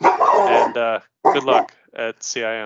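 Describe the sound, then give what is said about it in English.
A man's dog barks in three loud, short bursts, the last one drawn out into a whiny howl, while a man talks in between the barks. “That's my dog.”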